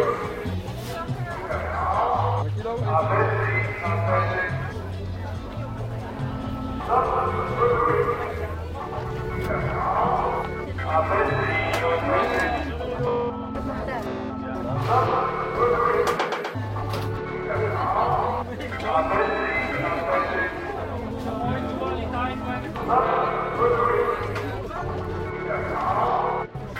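A busy outdoor public square in the city of Rotterdam with a steady murmur of many voices, passing traffic and general city bustle, continuous and fairly loud with no single voice standing out.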